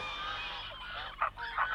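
Wild geese honking, two louder nasal honks standing out over a steady background of softer calls from a flock, with no voices; the geese awake at dawn to feed before crossing Östergötland.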